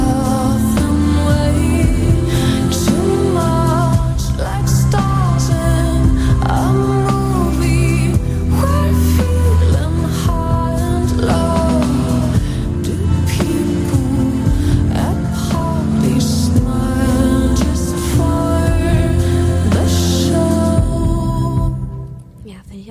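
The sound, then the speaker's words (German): A full, steady pop song plays with a woman singing flowing melodic lines over a dense band backing, staying loud throughout before cutting off abruptly near the end. “textlich sehr schön. Und ich mag ihre Stimme.”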